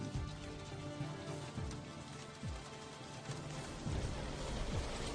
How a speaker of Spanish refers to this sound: La lluvia enfrió rápidamente los muros de piedra de la prisión.